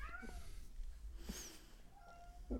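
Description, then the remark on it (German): A cat meows plaintively several times, its drawn-out, unhappy cries sounding over a low background rumble, with no talking. “Och, die Katze. Hört ihr die Katze?”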